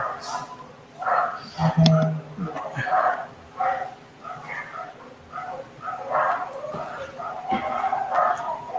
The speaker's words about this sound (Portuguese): Vocês estão ouvindo barulho do cachorro aí?